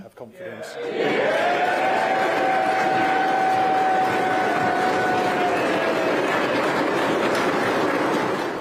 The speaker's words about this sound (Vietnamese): Một tràng pháo tay dành cho Thủ tướng Anh Boris Johnson.